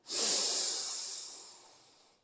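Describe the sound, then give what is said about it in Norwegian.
A long, deep breath drawn in through the nose during a breathing exercise, airy, swelling quickly then slowly tapering off over about two seconds with no talking. “Pust godt inn med nesa.”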